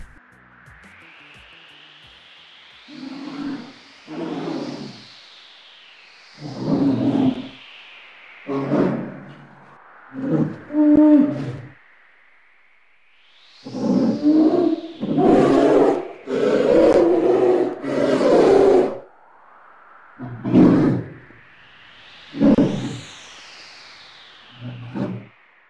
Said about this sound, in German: So hört sich ein ausgewachsener Eisbär an. Ganz schön gruselig.